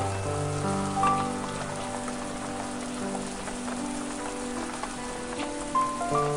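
Steady rain patters on a hard surface, a dense, even hiss of drops that never lets up, with sustained musical tones holding underneath.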